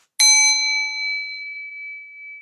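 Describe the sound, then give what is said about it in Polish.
A single bright bell, used by a workshop facilitator to signal participants that their time is up, is struck once, clear, its metallic ring hanging in the air and slowly fading away over a couple of seconds in otherwise silent surroundings. “Tak, tak sygnalizuje, że, że czas dobiegł końca. To jest wersja tak, grzeczna.”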